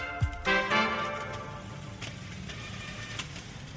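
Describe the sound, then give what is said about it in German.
Street traffic hums steadily in the background on Ferdinandstraße, a small, short street where a few people walk past: a low rumble with a brief engine-like whine and a few faint clicks, with no one talking. “Es gehen zwar ein paar Leute vorbei, aber eher, man hört den Verkehr im, Hintergrund nur.”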